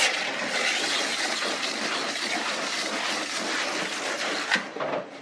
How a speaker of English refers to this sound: So now all we need to do is another quick spritz of water, not too much.